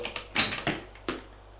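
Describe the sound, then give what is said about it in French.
A man knocks at and opens a first-floor apartment door: a few sharp latch clicks, a brief squeak, then soft wooden knocks as it swings, with no voices. “Il arrive vers la porte, frappe. Entre, dit Carole.”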